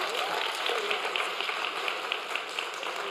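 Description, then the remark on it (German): An audience claps steadily, a dense patter of many hands that holds at an even level for a few seconds without fading. “So, Applaus einfach kurz hier hinten, kannst du sitzen.”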